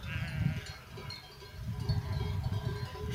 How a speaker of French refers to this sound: je profite un peu euh, d'un petit moment toute seule pour passer au milieu du troupeau de brebis, entendre les cloches, les voir pâturer, traverser le ruisseau.